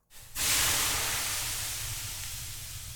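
Water hits hot sauna stones with a sudden loud hiss that swells into a steady, bright steam sizzle, slowly easing off over a few seconds with no voices.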